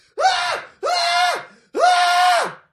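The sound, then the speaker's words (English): A played scream sound effect: three loud, high-pitched screams in quick succession, each a sustained shrill cry lasting under a second, with the final one held slightly longer. No talking in between. “I am uh, just failing to look for the scream right now.”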